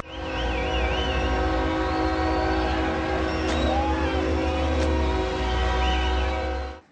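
A freight train in Mexico rumbles steadily while a loud, sustained horn blares over it, layered with wavering high metallic squeals, continuing for several seconds before cutting off abruptly.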